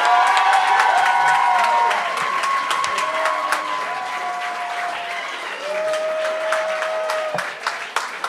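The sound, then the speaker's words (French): A crowd bursts into loud, sustained applause for humour legend Claude Crête as he comes on as a judge, dense clapping mixed with cheers and high whistles, easing slightly midway before swelling again toward the end. “Faites un maximum de bruit pour Claude Crête!”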